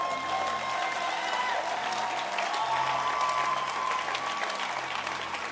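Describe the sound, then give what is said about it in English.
A church audience stands and applauds their pastor steadily for several seconds, a dense, continuous wash of clapping, with faint scattered voices and a sustained tone underneath. “Stand to your feet and clap your hands for your pastor.”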